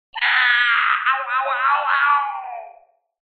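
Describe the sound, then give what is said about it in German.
A loud, drawn-out shriek of a beast stabbed through the shoulder with a rapier, lasting close to three seconds, its pitch wavering and quivering, like a creature screaming in pain, heard alone before it trails off. “Du stößt von hinten nach vorne und du verletzt alle fiesen Arterien, die das Biest hat. Das schreit auf.”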